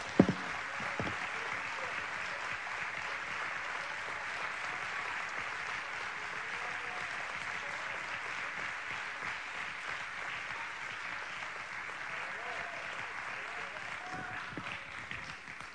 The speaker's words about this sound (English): If you're thankful for the cross, if you're thankful for the blood, would you just give God a hand clap of praise this morning? Hallelujah. Come on, give God a hand clap of praise this morning.